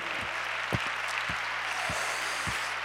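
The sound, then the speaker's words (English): A church audience clapping hands to the Lord during a service, a dense, continuous wash of applause-like claps with steady low thumps keeping a regular beat underneath, no voices standing out. “Clap your hands to the Lord today.”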